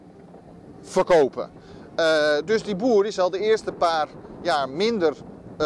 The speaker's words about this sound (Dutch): sorry voor de wind